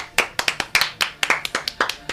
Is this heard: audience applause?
yes